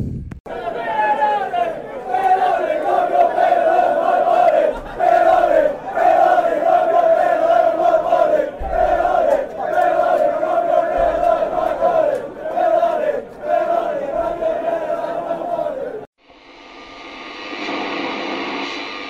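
A large Reading FC football crowd sings a slow, drawn-out terrace chant in unison, loud and sustained for about sixteen seconds, then cuts off into a broad, hissing crowd roar.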